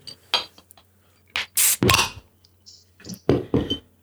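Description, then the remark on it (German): Clinks and a bright hissing burst as a bottle of Ratshirn beer is opened and poured, followed by scattered glassy knocks and rustles, with no talking. “Das war das schlechteste ASMR, das ich je gehört habe.”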